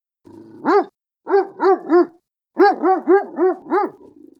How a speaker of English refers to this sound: I barked as loud as I could. No way some unknown dog was just going to walk through my yard.